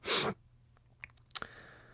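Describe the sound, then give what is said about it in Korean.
A loud cough bursts out, followed a moment later by two smaller, short coughs, from a person with a lingering cold, with no talking around them. “미안합니다. 자꾸 기침하고.”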